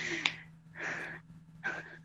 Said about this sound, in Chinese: 你能不能别在这喘气儿？